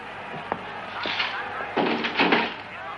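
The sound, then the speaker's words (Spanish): A door closes as a woman leaves: a soft click followed by two heavier, muffled thuds as it shuts into its frame, over a low steady background hum. “Ella sale y cierra la puerta.”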